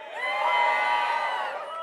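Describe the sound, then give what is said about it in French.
A crowd of many voices shouts and whoops for joy at once, a loud, sustained burst of overlapping cheering that holds steady for about two seconds. “Est-ce que des gens, vous êtes capables de pousser des cris de joie?”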